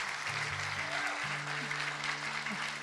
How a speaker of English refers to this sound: So I want to ask all of our teenagers who attended, all of our wonderful volunteers to stand. They've got their awesome shirts on. Y'all just give them a hand.